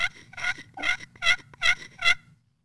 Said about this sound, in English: Yeah, and then you know the on the on the downstroke where you're getting that yelp, you know you're going to want to maintain firm contact on the glass.